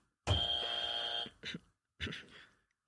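A loud, harsh buzzer blares for about a second, a steady electronic drone, then two short noisy bursts follow before the sound cuts to silence.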